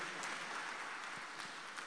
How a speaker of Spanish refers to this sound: ¿Cuántos creen eso? ¿Cuántos pueden darle un aplauso al Señor por la fidelidad que Él tiene para nosotros?